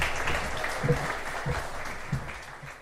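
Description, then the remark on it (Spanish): A crowd claps steadily for a few seconds, a dense wash of overlapping hand claps with a few louder individual claps standing out. “denles un aplauso, por favor.”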